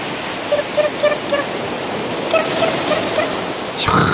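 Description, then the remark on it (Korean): A steady, full wash of sea waves and cool blowing ocean wind at a seaside travel destination fills the scene, with faint repeated chirping calls on top and a louder surge of surf at the very end. “시원한 바닷바람에 쐬니 왜 진작에 여행을 오지 않았나 후회가 들더군요.”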